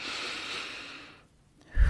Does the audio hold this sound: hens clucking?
no